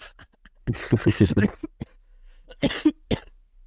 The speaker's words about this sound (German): So krank oder was? Ja, schon wieder. Ich war doch schon vor zwei oder drei Wochen krank, Alter. Yeah. Jetzt habe ich einfach seit zwei, drei Tagen wieder Husten.